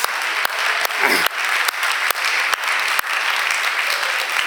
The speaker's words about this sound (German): Wer war schon hier in der Gemeinde, als wir hierher in dieses Haus eingezogen sind. Kann man mal so die Hände sehen? Geben wir ihnen einen fetten Applaus.